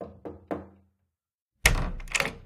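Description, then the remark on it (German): Three soft, evenly spaced knocks on a door as a man carrying a plate knocks quietly, followed by a pause and then a louder burst of bumping and rustling, like the door being opened. “Er ging mit einem schönen Teller zu ihr und klopfte leise.”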